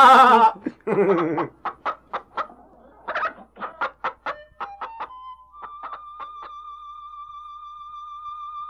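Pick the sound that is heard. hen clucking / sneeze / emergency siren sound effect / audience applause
hen clucking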